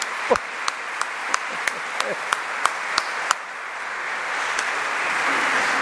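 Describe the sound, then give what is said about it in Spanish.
A church audience in Escuintla applauds the seminarians: a dense, steady wash of many hands clapping, with a few sharp, evenly spaced claps standing out at first before blending into sustained applause that continues to the end. “Otro aplauso para los seminaristas que ellos también van caminando.”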